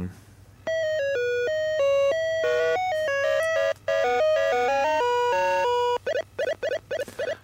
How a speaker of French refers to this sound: c'était Miss Pac-Man et donc c'était c'est sorti sur l'Atari 2600